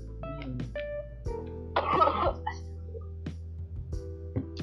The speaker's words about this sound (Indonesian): batuk iya batuk terus batuk batuk ah.